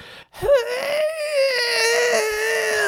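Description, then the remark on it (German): A person voices a monster's wail as it dies: a loud, drawn-out cry that leaps up sharply, then holds and slowly sags in pitch for nearly three seconds, alone. “Und das äh, zum Sterben gibt es folgendes Geräusch von sich.”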